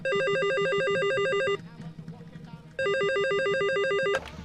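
A telephone rings loudly and close by in two long bursts of a warbling electronic trill, separated by a short pause filled with faint background murmur.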